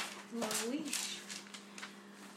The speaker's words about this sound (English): Pause for dramatic page turning.